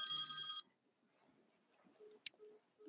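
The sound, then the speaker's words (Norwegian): A telephone rings with an incoming caller, a loud, bright electronic trill lasting about half a second, then cuts off abruptly, leaving faint low murmuring and a brief click afterward. “oi! da fikk jeg en innringer! Skal vi se her. Hvem er det som ringer i dag?”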